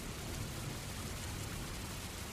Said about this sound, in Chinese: 窗外冰雹般的雨点不停的下着，阴冷的风好像从地狱里吹来一样。